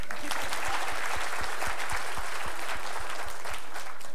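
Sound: audience clapping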